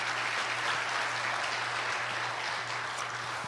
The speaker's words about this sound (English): Uh, yeah, we can clap for that. Thank you.